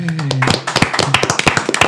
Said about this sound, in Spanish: pues fuerte el aplauso, hombre.